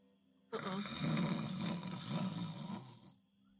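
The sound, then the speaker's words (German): A voice imitates a faint rattling breath from a frozen body as it twitches: one continuous, raspy, snore-like exhale lasting a couple of seconds, with quiet before and after and no speech. “Es geht ein Zucken durch diesen eingefrorenen Körper und ihr hört ein leichtes Rasseln.”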